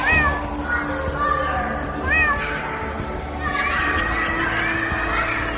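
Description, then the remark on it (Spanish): A cat named Pepper meows several times in a family home in Devon, England, its high, whiny calls rising and falling over a busy background of children's voices and general household bustle. “al enterarse que un vecino suyo tenía un gato del que ya no podía hacerse cargo.”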